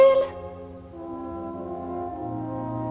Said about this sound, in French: Le klaxon n'est pas un jeu